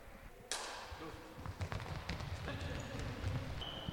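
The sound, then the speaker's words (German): Quick, rhythmic footsteps of someone sprinting about 15 to 20 meters without a starting block, starting abruptly after a sharp bang and continuing in a fast patter over a low rumbling background for a few seconds. “jetzt steht ein Sprint an 70 Sprint über 15, 20 Meter”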